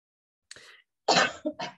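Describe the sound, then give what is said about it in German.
A sneeze: a brief, soft intake followed by a loud, explosive burst and a couple of trailing huffs, with no talking. “Gesundheit.”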